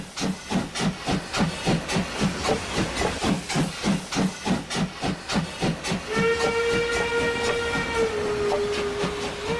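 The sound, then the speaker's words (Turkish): A steam locomotive chuffs in a steady, rapid rhythm of hissing bursts, then a long, loud whistle sounds over the continuing hiss of steam. “Her bekçinin düdüğünde, her trenin çığlığında kara kız gelir aklıma.”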